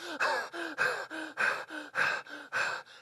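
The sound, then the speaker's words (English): A voice imitates hyperventilation heard on a phone call: about six quick, loud gasping breaths in a steady rapid rhythm, each a harsh airy rush with a slight vocal edge, with no talking. “And on the other end, I hear hyperventilation.”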